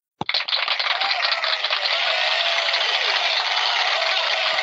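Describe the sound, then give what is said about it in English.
A sound effect of a large crowd applauding, bursting in abruptly and holding as a dense, steady wash of many overlapping claps with no voices over it. “Well, hold on, where's my other applause? Here, let me try this. That's a bigger crowd.”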